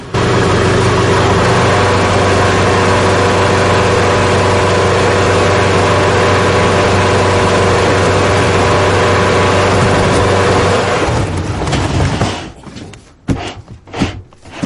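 A forklift engine runs steadily and loudly for about twelve seconds with a low droning hum as it places a coffin in front of a niche in a cemetery, then cuts out into a few brief, uneven clunks and scrapes. No one speaks.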